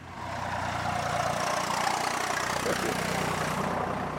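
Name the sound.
tractor engine passing by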